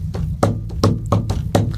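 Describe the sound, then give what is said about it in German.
A person knocks steadily on a wooden table, making deliberate beats rather than wild drumming: a few hard thumps and lighter taps falling into a repeating drum-like beat, fairly loud with a low rumble underneath. “Der, der hat auch, der klopft auch so sehr rhythmisch auf den Tisch und so.”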